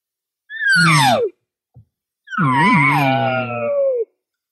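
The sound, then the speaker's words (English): Two imitated cow contact buzz calls, the call a cow uses to keep contact with other cows, each a nasal, buzzy whine sliding downward in pitch. The first is short, and after a brief pause and a faint click, the second is longer, wavering, and trailing off. “So when you're doing a contact buzz, you got to make sure there's hesitation.”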